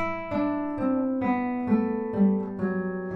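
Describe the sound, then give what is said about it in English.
A baroque guitar plays a slow campanella scale, about seven plucked notes on separate adjacent strings, each ringing on and overlapping the next for a shimmering, bell-like blend. Clear and steady, with no voices. “A Baroque guitar can get this special shimmering bell like sound”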